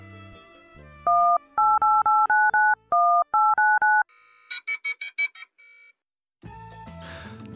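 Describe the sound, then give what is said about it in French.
A quick series of about ten loud, clean keypad dialing beeps in an uneven rhythm, then a few shorter higher chirps and a burst of busier electronic tones, with no voices. “Pour accéder au menu, appuyez sur la touche étoile de mer de votre téléphone.”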